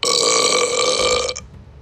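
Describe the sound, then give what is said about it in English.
A single long, loud burp from a woman in a car after she drinks something rumbles for over a second, then cuts off abruptly into quiet, with no talking. “and then she pulls something out her bag she drinks it then she burps in my car”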